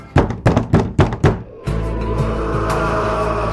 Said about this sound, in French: Peu importe, quoi qu'il en coûte, je frappe à la porte.